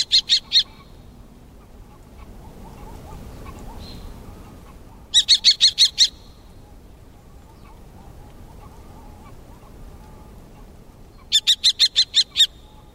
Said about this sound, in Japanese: ここ渡良瀬遊水地をはじめ関東地方では一年中観察されるチョウゲンボウですが四国や九州ではほとんどが冬鳥なのです